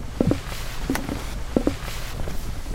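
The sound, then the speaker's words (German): Slow, even footsteps thud on a hollow wooden boardwalk in the dunes on Amrum in deep darkness at night, three paired steps roughly every 0.7 seconds, moderately loud over a quiet background hiss with no voices. “Und während die meisten gerade drinnen in der hellen, warmen Stube gemütlich ihr Abendbrot genießen, sind draußen in tiefer Dunkelheit auf dem Bohlenweg in den Dünen deutlich Schritte zu hören.”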